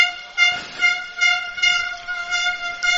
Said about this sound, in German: Ich hasse diese Tröten übrigens. Habe ich schon mal gesagt? Mehrfach.